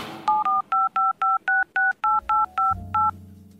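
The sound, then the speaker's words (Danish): A telephone number is keyed in to call the Christmas expert from Svaneborg: a quick, even run of about eleven short touch-tone beeps, each a clear two-note chirp, followed by a faint low hum at the end. “Jeg ringer med det samme.”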